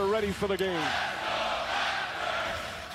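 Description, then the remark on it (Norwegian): A large basketball arena crowd roars in celebration after the Raptors won the finals, with a few loud shouts at the start before the sustained, dense wall of cheering voices carries on throughout. “Eh, og det er den, for den er best i USA, men det her er når de har vunnet finalen.”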